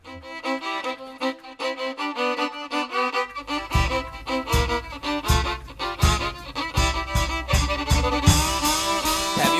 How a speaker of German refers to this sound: Ich würde vorschlagen, wir machen jetzt Musik.